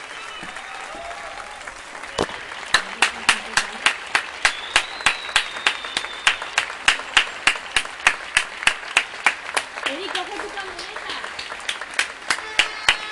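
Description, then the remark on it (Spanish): Neighbourhood applause for health workers, pharmacists, truck drivers and cashiers starts after a couple of seconds and continues as steady, rhythmic clapping with sharp, regular beats, while a person speaks briefly over it. “Bueno, esto que se escucha son los aplausos. Aplausos por la sanidad, aplausos por los que nos están cuidando, por los farmacéuticos, los camioneros, los cajeros, por todos los que están ahí al pie del cañón.”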